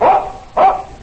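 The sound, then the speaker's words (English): Two loud barks from Tige, Buster Brown's dog, in quick succession, each a short bright burst separated by a brief pause, with no voices present. “That's my dog, Tige.”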